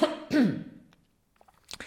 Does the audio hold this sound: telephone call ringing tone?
no